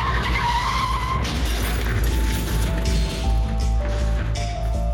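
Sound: car tires skidding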